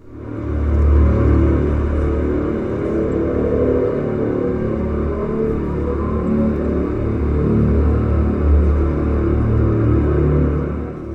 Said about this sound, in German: Es ist Verkehrslärm oder Verkehrsgeräusch von direkt gegenüber vor dem Bahnhof, verfremdet mit einem tiefen, warmen Brummen. Der Stadtklangkünstler Sam Auinger.